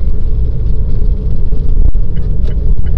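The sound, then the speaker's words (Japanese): A car rolls along at low speed into the Gifu Park parking lot at the foot of Mount Kinka in Gifu, Japan, its engine and tyre rumble steady, with a brief soft knock midway and no talking. “岐阜公園駐車場へ。はいちょっと入れたいと思います”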